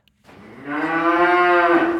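A single long, loud cow moo, rising from a low rumble into a sustained, droning bellow that holds steady for about two seconds with no voices present.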